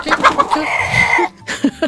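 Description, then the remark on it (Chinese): A hen clucks in quick, choppy bursts, lets out a longer drawn-out cackle, then follows with a couple more sharp clucks after a brief pause. No one speaks. “有人说，为什么会是母鸡不是公鸡？”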